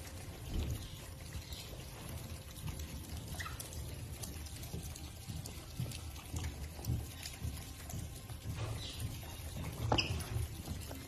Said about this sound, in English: look at these look at these little fuckers. I didn't know otters made such cute noises.